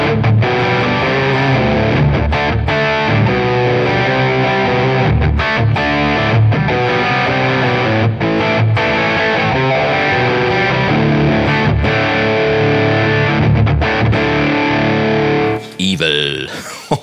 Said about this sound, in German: boah, das klang ganz schön fett, ne? Zwei verschiedene Amps, links und rechts, einfach mit einer Gitarre angesteuert. Habe ich noch nie ausprobiert, aber klang wirklich sehr geil.